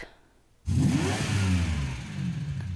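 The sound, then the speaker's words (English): A black luxury car with solid tinted windows: its engine suddenly swells after a brief quiet moment, the rumbling pitch rising and then easing down as it passes by and slows, with no one talking. “I looked up and saw a black luxury car with solid tinted windows as it passed by. It slowed down, like whoever was inside wanted to get a good look at me.”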